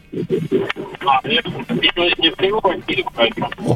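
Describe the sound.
A caller's voice comes through a warbling, distorted phone line, the speech wavering and smeared with a narrow, tinny quality, steady and fairly loud throughout.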